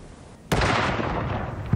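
A ceremonial gun salute volley at a royal funeral at Windsor Castle, United Kingdom: one sudden, loud blast bursts out and trails into a long, rumbling roar, with a smaller crack just before the end. No one speaks.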